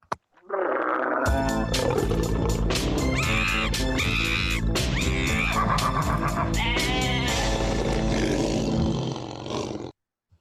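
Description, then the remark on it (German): Loud animal calls, roars mixed with bleating, fill about nine seconds of sound at a zoo. Steady, rhythmic hits run underneath throughout. There is no talking, and the sound stops abruptly at the end. “Ähm, ja, ihr wundert euch vielleicht so, wieso sind wir im Zoo?”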